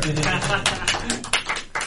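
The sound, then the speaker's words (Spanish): Applause from a small group, a dense, steady patter of hand claps lasting about two seconds, with some voices mixed in beneath it. “Me gané un 10 felicitado, aplaude”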